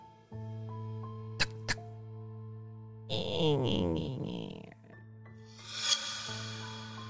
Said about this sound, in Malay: Bunyi pintu yang dikunci tu dibuka dengan perlahan-lahan.